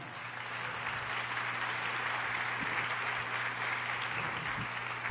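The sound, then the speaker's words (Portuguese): An audience applauds to God steadily for about five seconds, a dense, even wash of many hands clapping at constant loudness, with no voices rising above it. “Quem está te falando, pode aplaudir a Deus, pode.”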